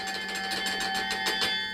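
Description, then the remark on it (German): Carillon bells ring out in a quick, steady run of strikes, played with fists and feet on large wooden batons and pedals linked to the bells by pull wires, heard in a small chamber beneath the bells; sustained metallic overtones overlap into a shimmering wash, with a faint mechanical knock on each hit and no voices. “Was sich in der Kammer durch das Anschlagen mechanisch anhört, erklingt draußen in zarten Tönen über den Platz.”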